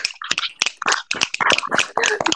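A short burst of audience applause: many overlapping, irregular claps forming a dense, crackling patter at steady loudness for about two seconds, with no voices.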